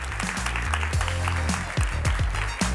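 Audience applause as a female participant is called onto the stage, a steady dense clatter of many hands clapping throughout, with a low, thumping music beat underneath.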